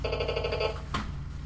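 A short electronic mobile phone ringtone chirps for well under a second with bright stacked tones, followed by a sharp click, over a steady low background hum.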